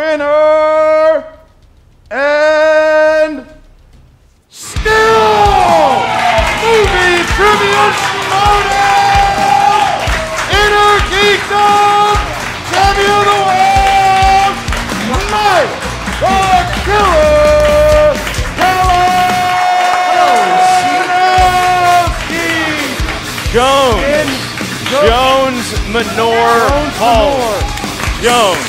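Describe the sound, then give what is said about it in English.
A large crowd roars with sustained cheering, whoops and shouts, and loud applause runs beneath it for nearly half a minute after a brief opening of a couple of rising calls. “He's giving a round of applause to the crowd that didn't love him as much as they loved Amaru.”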